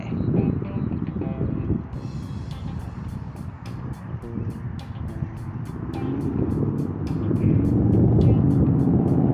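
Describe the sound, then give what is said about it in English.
Heavy road traffic rumbles steadily as trucks roll past, a deep engine drone with rapid rhythmic ticking overhead, swelling louder toward the end with no voices. “lot of anything going on other than trucks.”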